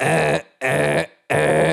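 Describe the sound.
A voice imitates an alarm siren with three loud, blaring vocal bursts in a steady on-off rhythm, each cut off by a brief silence, forceful. It stands for a snack bag's siren that goes off when about 90% of the snack is eaten.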